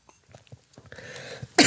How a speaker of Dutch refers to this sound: en dan hoest ik even.